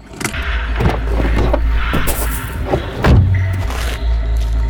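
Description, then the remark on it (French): A car engine rumbles as the vehicle maneuvers and pulls in to park one metre behind a parked estate car, with a few soft thumps and a brief drop in engine pitch near the end. “Il effectue une manœuvre et se range à un mètre derrière le break des amoureux.”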